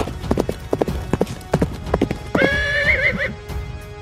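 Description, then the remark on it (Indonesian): Rapid, rhythmic hoofbeats of a horse being ridden at a gallop, then a loud, high, wavering whinny rising over the clatter for about a second before the hooves continue. “Mimpi itu bermula ketika aku sedang memacu kuda.”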